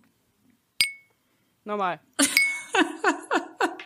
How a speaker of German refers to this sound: Ich, ich, ich stoße mal kurz auf uns an. Hat ihr auch Lust? Ja. Ja, bitte mach's für uns.